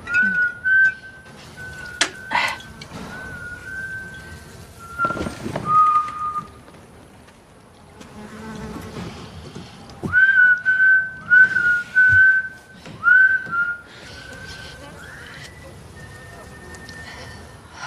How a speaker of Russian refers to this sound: … ее видит из окна, и он начинает э, насвистывать